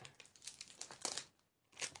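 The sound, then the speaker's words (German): Crackly ripping of thick adhesive tape being pulled off a roll into one very long strip, in a few quick bursts, a brief pause, then one more loud pull, with no voices. “Und zwar nehme ich das einmal, mache ich einen ganz, ganz langen Strahl, also so ein ganz langes Stück ähm, und schneide das dann ab.”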